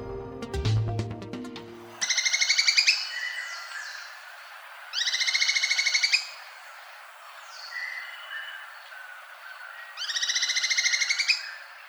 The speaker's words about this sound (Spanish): Escuchamos al pico de pala cresti amarillo, según fue captado por ornitólogos colombianos en el Valle del Cauca y Antioquia.